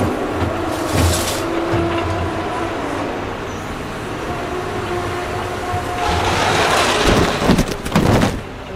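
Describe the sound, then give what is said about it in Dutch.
Heavy trucks dumping finished soil and five wheel loaders levelling it roar steadily, a dense mechanical rumble that swells louder as the machines pass back and forth, with no talking. “Je hoort het heen en weer brullen van de shovels.”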